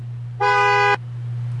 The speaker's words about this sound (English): Usually you just honk your horn at the guy and he comes and starts pumping it for you.